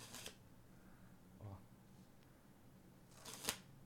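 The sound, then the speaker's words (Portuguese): Playing cards being handled: a quick papery riffle at the start, a soft flick midway, and a sharper snap of cards near the end, with faint murmuring voices in the background. “Ó, você começa fazendo assim com o baralho.”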